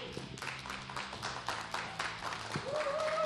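An audience breaks into steady, dense applause, many hands clapping together at a moderate level for the whole stretch, with a thin high tone sliding in near the end.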